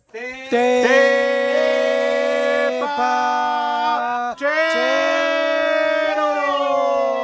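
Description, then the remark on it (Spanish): A loud, steady wailing ambulance siren tone holds for several seconds, rising slightly in pitch, briefly cutting out and restarting midway, with no talking over it. “la ambulancia, carajo. Ya viene por mí.”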